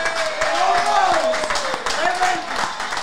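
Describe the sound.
A short round of applause with scattered, uneven claps, plus loud whooping and cheering voices rising and falling throughout, filling the whole three seconds, at the American Whiskey bar on West 30th Street between 7th and 8th in Manhattan.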